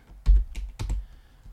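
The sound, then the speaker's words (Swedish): Quick keystrokes on a computer keyboard while typing a search for Galápagos Islands finch, a short burst of sharp clicks and low thumps in an uneven rhythm, moderately loud, with no one talking. “Eh, Gal, jag frisöker nu på ga, Galapagosöarna Fink.”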